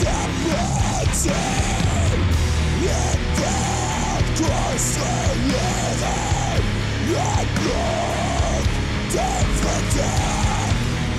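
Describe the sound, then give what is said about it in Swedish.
A loud, dense band plays throughout while a strained, almost shouted vocal sits dry and up front, with little reverb, its repeated rising-and-falling phrases standing apart from the music. “Nu låter det som att sångaren sjunger vid mixerbordet.”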